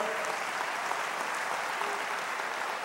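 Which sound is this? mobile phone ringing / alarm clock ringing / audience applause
audience applause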